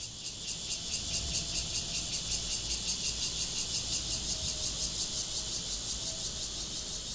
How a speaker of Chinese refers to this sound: 这个答案是一只。好，因为如果两只的话，会有那种此起彼落的声音，不会很整齐的声音。吼，这就是那个蝉的声音。好，那它当然就是在求偶喽。